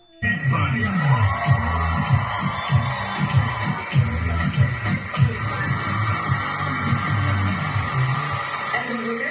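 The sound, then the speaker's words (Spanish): Several women scream and cheer excitedly in a video, their loud overlapping shouts and whoops running nonstop with a rough, rising-and-falling intensity. “So, están las hermanas, supongo, ahí gritando. Es el video.”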